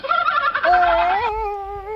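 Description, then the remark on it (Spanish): A human voice imitates a chimpanzee call that comes out like a turkey's gobble: a rapid warbling burst, then a sustained wavering hoot, loud, with no words spoken. “Parecía, parecía un pavo.”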